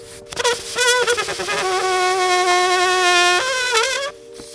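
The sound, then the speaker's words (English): A balloon loudly squeals as air rushes out of its neck, a steady, buzzy whine with wavering pitch that holds for about four seconds, then stops abruptly. “Curtis Rist of Discover magazine compares this phenomenon to air rushing out of a blown up balloon.”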